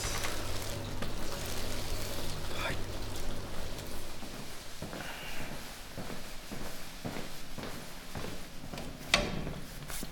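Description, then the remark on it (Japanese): Fermenting sake mash from this year's Yamada Nishiki rice, a 40% brew, bubbling in a tank: a dense, steady crackle of tiny pops and fizzing bursts over a low machinery hum, with occasional louder plops. “これはあの今年の山田錦の40%の仕込みの音ですあいい感じですうわ泡が綺麗な青空がいいとはまさにこのことで大きな泡が感じます”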